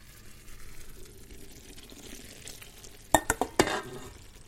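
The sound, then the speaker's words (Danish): Hot sugar mass for mango candy pours onto gelatin in a bowl with a soft hiss and sizzle over a low rumble, followed by a few sharp clinks of a pan or utensil against the bowl. “Så hælder jeg sådan set bare den varme sukkermasse oven på gelatinen.”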